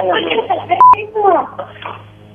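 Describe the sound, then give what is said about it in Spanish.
A brief electronic phone-line disconnect tone beeps once, sharp and fairly loud, after the other party hangs up a phone call, cutting into thin, telephone-filtered voices that keep talking before and after it. “¿Te colgaron?”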